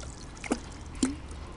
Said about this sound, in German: Der Kwiatkowski ist am Fischen und plötzlich sieht der Kwiatkowski, dass der Nikos etwas ins Wasser wirft.